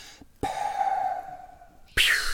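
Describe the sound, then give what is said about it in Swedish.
Someone imitates a wheezing breath, as of an airway blocked by something stuck in the throat: one drawn-out, whistling, strained intake of air lasting over a second, fairly loud, then a short, sharp breathy burst. “Och så hade man det här väsande ljudet när han plockade upp den som att den hade täckt till eh, luftvägarna.”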